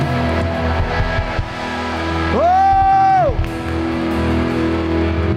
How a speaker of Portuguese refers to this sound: Dá o glória a Deus mais alto que você puder. Mais alto.